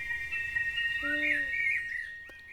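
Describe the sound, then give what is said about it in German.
Birds sing in a forest, with high, sustained chirping notes drifting through a soft, constant background of woodland ambience. The song is moderately quiet, with no voices. “Das iPad war sehr glücklich, so viele Tiere, Insekten und Vögel zu sehen.”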